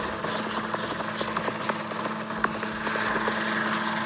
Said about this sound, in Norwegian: Han går rundt i snøen. Han er ute med søppelbilen. Det, det men, men, du hører egentlig bare søppelbilen. Ah. Nei, det der, er så nærme! Jeg hørte søppelbil, og så hørte jeg noe flappete.